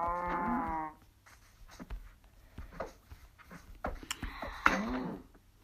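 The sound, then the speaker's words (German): A cow moos twice, a long, loud low moo at the start and a shorter one near the end, with scattered light clicks and taps in between. “Oder da oben läuft eine Kuh.”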